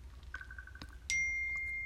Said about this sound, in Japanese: ピーンってね、なんか携帯鳴ってますけども。